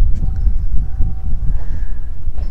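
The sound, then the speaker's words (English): A houseboat's engine rumbles low and steady as it heads out of the marina, with faint whining tones above it and gusts of wind buffeting the microphone; no one speaks. “So the marina crew folks are getting all their stuff together, moving the boats out.”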